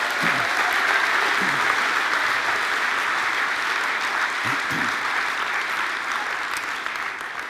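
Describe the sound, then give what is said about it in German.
Sustained audience applause after a presentation, a dense wash of many hands clapping at steady volume for several seconds, with a few faint voices or cheers mixed in. “Gib dir nochmal einen Applaus.”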